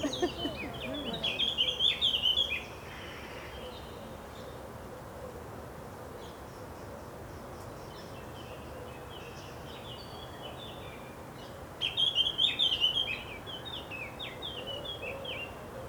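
Birds sing in the early morning in two short bursts of quick, high-pitched chirping trills, one at the start and another near the end, over a steady, continuous buzzing hum with no talking.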